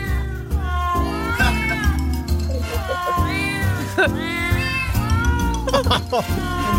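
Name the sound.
cat meowing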